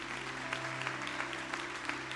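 A crowd applauds the Lord steadily, a dense wash of clapping with a few sharper claps standing out, while a low sustained hum runs underneath.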